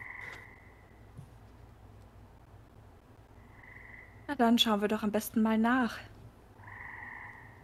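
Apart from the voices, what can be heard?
frog croaking sound effect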